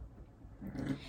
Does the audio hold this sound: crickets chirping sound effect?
no